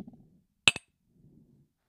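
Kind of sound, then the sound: household object, cups clinking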